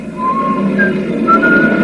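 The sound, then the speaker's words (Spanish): Someone whistles a casual, wandering tune absent-mindedly as a Model T car takes off, a few thin sustained notes drifting up and down over a steady low rumble in the background. “El modelo T despega mientras Selby continúa silbando distraído.”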